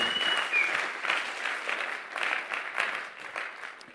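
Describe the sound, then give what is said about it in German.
A church audience applauds steadily after a worship performance, a dense wash of many hands clapping that holds for several seconds and eases off slightly toward the end, with no voices rising above it. “Geben wir doch nochmal einen grossen Applaus.”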